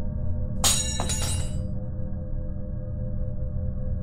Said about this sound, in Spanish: la cucharita de la taza con la que abatía el café se cayó al suelo y quedó boca arriba.